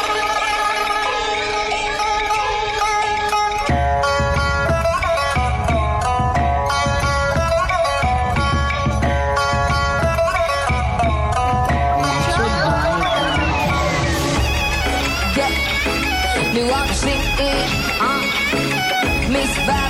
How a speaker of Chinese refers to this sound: 这段时间给大家每天晚上都会放一首非常好听的这个嘻哈音乐。今天继续啊